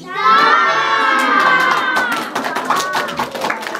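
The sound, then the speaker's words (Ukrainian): A crowd of children shouts and cheers together in high, bright voices in a school concert hall after a ribbon-cutting ceremony, loud and sustained at first, then breaking into scattered calls and a few claps as the noise settles. “Урочиста мить перерізання символічної стрічки, і концертна зала, де вже встигло б житися новеньке фортепіано, заповнюється дзвінкими дитячими голосами.”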